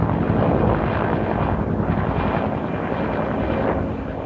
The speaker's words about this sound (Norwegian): Oppe i fjellåsene, ikke mange timene fra San Francisco, glir et helikopter over flammene som et seg oppover landskapet. Ut av magen slippes tusenvis av liter.